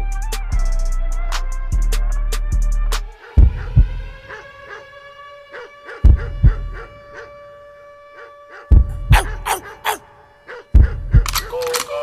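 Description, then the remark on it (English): A hip hop beat plays loud, booming bass kicks landing in an uneven groove under sharp percussive hits and a sustained synth tone, with no voices. “Some, some dope hip hop.”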